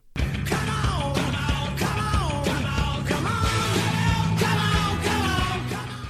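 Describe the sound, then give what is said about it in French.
A short, loud musical jingle with punchy bass, bright rhythmic hits and shouted vocal bursts, running at steady high energy for about six seconds before trailing off at the end. “Donc, on va, on va se pencher dessus d'ici un petit jingle.”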